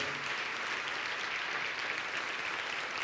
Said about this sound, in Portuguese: Vamos aplaudir bastante ao nome do Senhor.